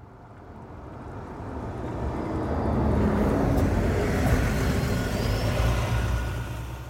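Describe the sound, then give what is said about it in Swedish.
A dirty, heavily loaded Volkswagen bus rumbles in, its low, steady engine roar swelling to a loud peak midway and holding there as it pulls into the old garage yard of Vägverket, the Swedish road administration, in Fredrika, with no voices. “En smutsig Volkswagen-buss råmar in på Vägverkets gamla garageplan i Fredrika.”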